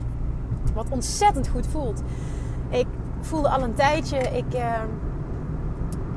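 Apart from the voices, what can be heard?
car interior driving noise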